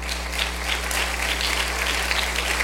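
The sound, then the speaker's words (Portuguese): An audience applauds the Lord steadily, a dense wash of many hands clapping at once that holds at an even level throughout, with a low electrical hum underneath and no talking. “Pode aplaudir o Senhor.”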